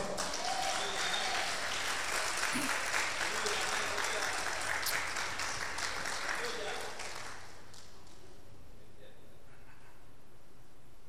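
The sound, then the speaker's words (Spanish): A crowd at a religious service claps together in dense, sustained applause to the Lord for several seconds, loud, then it fades out into quiet with faint murmuring. “Den un aplauso al Señor por eso.”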